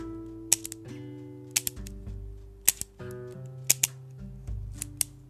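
A Style Fit multi-pen clicking: sharp, crisp clicks arriving in quick pairs about once a second, roughly ten clicks in all, over soft steady background music with no talking.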